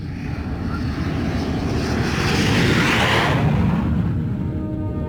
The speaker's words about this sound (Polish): Samolot pruł powietrze z prędkością prawie dwóch machów.